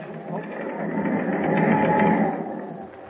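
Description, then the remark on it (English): A ship's engine runs in a steady mechanical drone with a faint rhythmic clatter, swelling slightly midway, heard in a dark forward hold three decks below, while someone speaks in a hushed voice over it. “Meanwhile, in the darkness of a forward hold, three decks below, a hushed voice rises above the sound of the ship's engine.”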